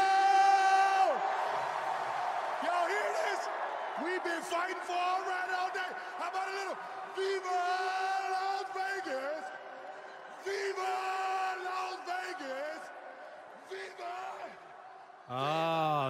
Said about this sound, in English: That was the worst attempt at getting a crowd to sing along with you.